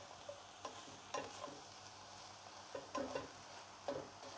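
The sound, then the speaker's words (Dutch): Aubergine sizzles steadily in a hot pan, with the extractor fan off, while a utensil stirs and scrapes it in several brief, irregular bursts, with no one speaking. “Ik wil niet de hele tijd zo'n zo'n ruis door het koken heen hebben.”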